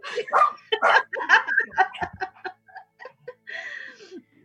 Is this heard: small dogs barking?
yes